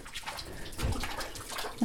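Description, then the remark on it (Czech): Water sloshes and splashes continuously inside a full bucket being hauled up from a well, a wet churning that swells slightly toward the end with a brief louder slosh. “se nám ukazuje, vědro se nám, a máme ho plné dokonce.”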